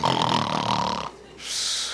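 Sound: voice imitating snoring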